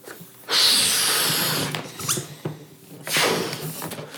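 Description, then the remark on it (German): A green balloon printed with Happy Birthday is blown up for a birthday in strong, breathy puffs: a long blast of air, a few short squeaky rubbery sounds, then another hard puff. No one speaks. “So, aufgepustet ist er.”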